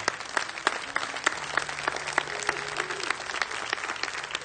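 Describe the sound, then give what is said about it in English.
A round of applause from many hands for a Catholic bishop, a dense, steady crackle of clapping sustained throughout without any talking over it. “That's what that Catholic bishop did, and I think he deserves a good round of applause, too, don't you?”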